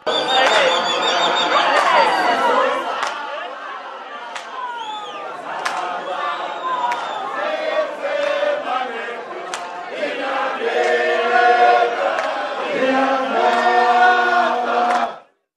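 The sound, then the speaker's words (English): A large crowd at a gathering in Pretoria roars and shouts loudly, welcoming the announcement of preferred candidates, then voices join in group singing with sustained tonal lines, the dense noise holding steady throughout before cutting off abruptly. “The announcement of preferred candidates was welcomed by a huge noise, followed by singing.”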